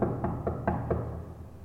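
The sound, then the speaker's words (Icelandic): Four quick knocks rap on a hollow stone wall in a cellar, with a hollow space behind a gravestone, in an even rhythm, fairly loud with a dull resonant thud, then quiet. “Já, ég skal sína þér hérna nú banka ég hérna veggin”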